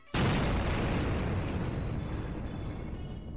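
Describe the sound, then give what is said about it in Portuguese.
A boat blown up by explosives: a sudden explosion erupts with a sharp onset, then a loud, broad rumbling roar that sustains and slowly fades over a few seconds. No voices are heard. “Você olha para trás e o seu barco acabou de ir pelos ares.”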